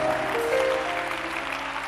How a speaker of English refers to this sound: And if you can clap your hands, the blessing of God is yours in the name of Jesus.